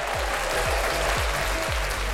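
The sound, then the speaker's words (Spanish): A crowd applauds in a dense, steady wash of clapping that fills the whole clip, with a regular low thumping pulse beneath it. No one speaks. “¡Aplausos!”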